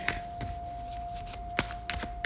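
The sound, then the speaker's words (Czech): Playing cards being shuffled for a card reading: a few soft, irregular papery snaps and riffles spread across a couple of seconds, fairly quiet, with a steady faint tone humming underneath and no one talking. “A já už se dívám na vaše fotky, míchám od toho karty a my se podíváme nejdřív.”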